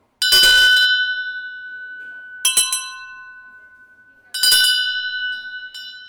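Three separate strikes of small metal bells, rung to compare how different metals sound, each bright ringing tone lingering and slowly fading before the next, with a clear sustained pitch and no talking.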